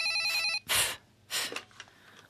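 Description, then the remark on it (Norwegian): A telephone rings on an outgoing call with a bright electronic tone for about half a second, then breaks off. Two loud, breathy bursts follow, like sharp inhalations. Nobody speaks. “Eh, det er fra … eh, som ringer.”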